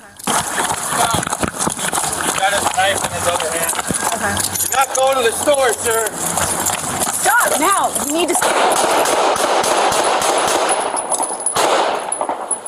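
A rapid burst of nine gunshots cracks out in quick succession, sharp, fired by a police officer into the back of a man in an electric wheelchair, while several people shout and cry out over a noisy street background.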